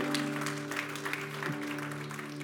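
A church audience claps for the Lord in a dense, continuous wash of applause, with a sustained organ-like tone humming underneath throughout.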